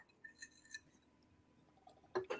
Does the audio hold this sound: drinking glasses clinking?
yes